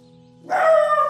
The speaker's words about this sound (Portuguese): Ah, ele está nervoso, está tenso. Estes cães irritam-se muito, não irritam? Com coisas que eles lá veem.